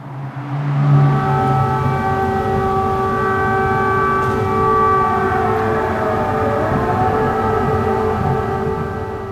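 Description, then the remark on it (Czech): Air raid sirens drone outside the windows at midnight in a steady, continuous wail, several tones overlapping and one slowly rising and falling, over a low rumbling background with no voices. “tak za oknama se rozezněly sirény a já jsem původně myslel, že to budu ignorovat, jako všichni tady.”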